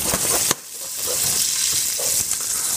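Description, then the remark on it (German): About two teaspoons of sugar caramelize with coarsely chopped orange pieces with peel in a hot pan, with a steady, bright sizzling hiss throughout, broken early by a single sharp clack, with a few soft stirring scrapes and no voices. “Dann karamellisiere ich das mit etwas Zucker. Warte, bis der schmilzt.”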